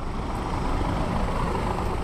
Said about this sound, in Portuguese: Fora do armazém, alinham-se oito caminhões que estão a ser carregados ao mesmo tempo.